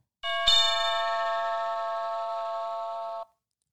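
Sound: doorbell ringing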